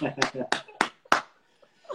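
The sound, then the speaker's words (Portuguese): A short round of applause the speakers give themselves as they greet each other: four sharp, evenly spaced claps over about a second, with voices talking and exclaiming through them before things quiet down. “Uma salva de palmas para nós, né”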